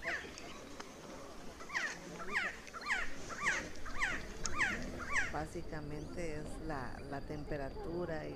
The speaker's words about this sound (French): Donc Quetzaltenango, c'est la terre des Quetzales, les oiseaux de notre emblème national. Allez, un petit cadeau, voici le chant d'un Quetzal.